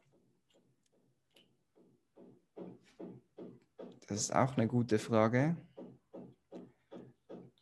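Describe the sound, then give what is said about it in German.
Steady, evenly spaced knocking from the next room, a long run of dull thuds roughly three per second, continuing under a short stretch of speech and then on its own again. “Klopft da bei dir? Wer klopft da bei dir?”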